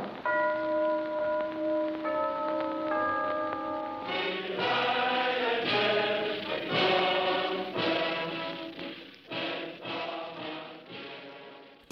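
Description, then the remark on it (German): A Kienzle clock chime in a 1933 advertisement rings out the opening bars of the Nazi anthem: a few sustained, stepping bell notes, then a busier run of overlapping strikes, clear, with no voices. “propagierte deutsche Klänge, so die Anfangstakte aus dem Horst Wessel-Lied, der NS-Hymne”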